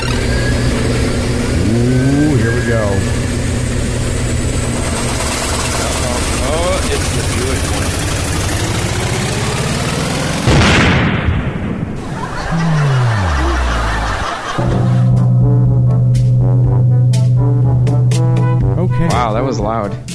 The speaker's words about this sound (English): That, that was loud, wasn't it? I was kind of thinking the same thing. I'm like, wow, that was like ridiculously loud. I'm like, damn, the wheel got loud tonight.